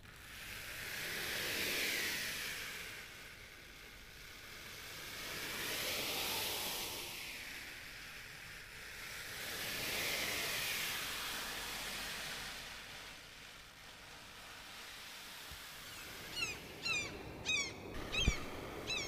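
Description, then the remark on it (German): A shoe brush scrapes back and forth over a piece of cardboard in slow, swelling strokes to imitate ocean surf, making a broad hiss that rises and falls like waves washing ashore, followed by a few sharper scratchy rubs near the end. “Genau, mit einer Schuhbürste und einem Karton kann man Meeresrauschen herstellen.”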